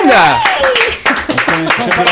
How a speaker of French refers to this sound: Mais on fait un tonnerre d'applaudissements